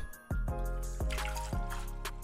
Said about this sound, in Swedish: så vi börjar med att hälla i vatten.